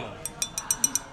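Pint glasses clink together six times in quick succession on a pub table in a toast, each tap bright and briefly ringing, over a soft background murmur.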